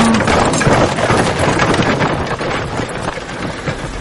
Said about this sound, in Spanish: Lore sujeta cuidadoso el huevo y observa cómo el carro se marcha siguiendo el camino.